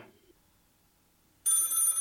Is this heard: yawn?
no